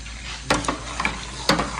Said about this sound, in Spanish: No, deja de mover la mantequilla. Ya hirvió, entonces Todavía ah, sigue hirviendo. Sigue hirviendo.